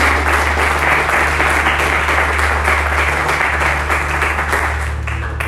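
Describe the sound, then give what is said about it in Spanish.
A church audience applauds Christ during a sermon, steadily for several seconds, a dense, continuous wash of many hands clapping at a fairly loud level, with a low steady hum underneath and no talking. “Y le pueden aplaudir a la piedra del ángulo que es Cristo Jesús.”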